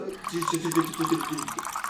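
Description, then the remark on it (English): Water pours into a container, a steady two-second gurgle with a ringing, hollow tone. “I want water.”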